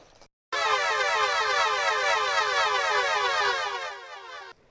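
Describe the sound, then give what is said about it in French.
A loud, steady siren blares continuously for about four seconds after a brief silence, its wailing, warbling tone cutting off abruptly, sounding from a machine after three boys press its big red button together. “Alors un bruit de sirène retentit.”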